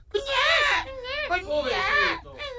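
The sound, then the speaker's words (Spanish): A voice imitates a newborn baby crying, giving two long wavering wails with a short break between them. The imitation is loud and strained, and it is heard without any other sound. “entonces llega otra comadre para visitar a la comadre al niño que va tenido y abre la puerta del apartamento y le dice, ay, aquí está, está llorando el niño.”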